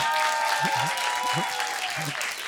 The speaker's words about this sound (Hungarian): egy tapsot kapsz azért, jó?